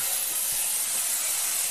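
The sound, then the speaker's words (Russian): Angle grinders cutting through coils of cable, one person feeding the cable while another cuts, make a loud, continuous high-pitched hiss and rasp that holds steady without breaks, with no voices present. “Звук болгарок.”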